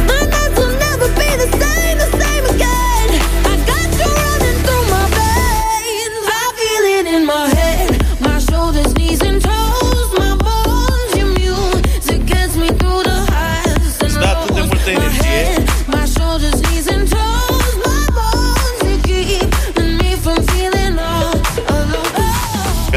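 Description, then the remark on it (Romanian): A loud, upbeat pop song plays continuously with a steady driving beat and bright melodic layers, briefly thinning out for a moment before the full arrangement kicks back in. “Bă, dar e o, e o piesă la care se dă la maximum volumul în mașină Aole.”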